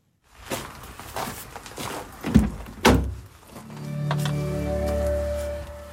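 Someone gets into the Dörbsmobil, the car-sharing car in the village of Klicksbüll, on a cold, rainy day: rustling and shuffling, then two heavy thunks as the door shuts, followed by a low steady hum as the engine starts up. No one speaks.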